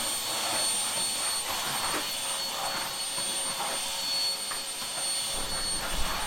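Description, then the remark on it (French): A vacuum cleaner runs steadily and loudly throughout, a constant rushing drone with a high-pitched whine on top and no one speaking. “Du coup là ces derniers jours j'ai pas mal passé l'aspirateur.”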